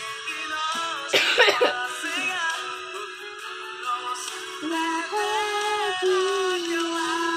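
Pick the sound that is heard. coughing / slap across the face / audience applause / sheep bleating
coughing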